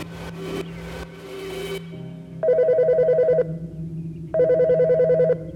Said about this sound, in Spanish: En el sueño, aquí en la cocina, sonó el teléfono.